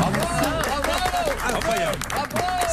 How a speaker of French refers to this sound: c'est la première fois que cela se produit des applaudissements spontanés.